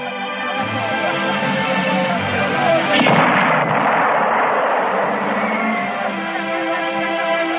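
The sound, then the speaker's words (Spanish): A single distant shot from the new 77 cannon, about 50 kilometres away, booms out around the middle, a broad, muffled blast rolling over a steady background rumble before fading back into the ambient noise. “Ha sido un cañonazo.”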